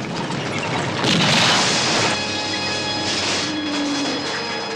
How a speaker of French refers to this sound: Le pneu qui crève, les deux qui se regardent, et, boum, le, camion tombe dans le précipice et explose.